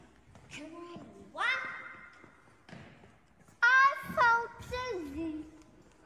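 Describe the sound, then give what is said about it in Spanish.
A young child calls out in drawn-out, high-pitched vocal bursts that ring and echo inside a small, simple village church, with a couple of louder cries and faint background thumps. “Y … bien contenta por el eco”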